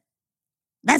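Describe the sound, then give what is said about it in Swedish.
After a stretch of silence, a person abruptly imitates the dog Fonzie with a single loud, bark-like vocal burst at the very end. “Han, han skäller inte så mycket, men han låter så här...”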